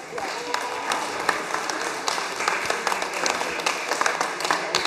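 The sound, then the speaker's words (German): An audience at a team prize-giving breaks into applause to thank the publisher D-Punkt Verlag, a steady, dense patter of many hands clapping at an even loudness for several seconds, with no voices rising above it. “Ja, machen wir nochmal einen kurzen Applaus.”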